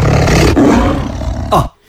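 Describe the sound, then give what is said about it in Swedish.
A person growls out a loud, rough roar in imitation of a sabre-toothed tiger, sustained for over a second, then ends with a short rising snarl before cutting to silence. “Ungefär som en sabeltandad tiger.”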